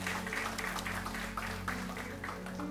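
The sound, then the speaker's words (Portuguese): An audience claps for the Lord in a steady, dense wash of applause that continues at the same level throughout, with a low sustained tone humming underneath. “Dê um aplauso outra vez para o Senhor.”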